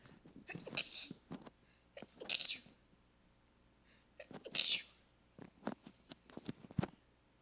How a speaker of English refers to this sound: Hang on, I gotta sneeze.